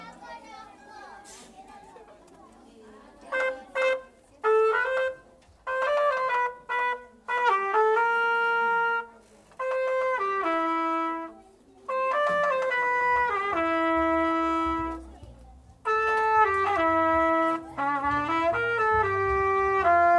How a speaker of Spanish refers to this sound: finalmente les voy a presentar la trompeta. La trompeta es un instrumento de bronce que suena muy fuerte.